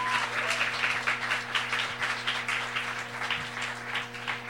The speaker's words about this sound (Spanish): Denle un aplauso fuerte, no todos lo ven.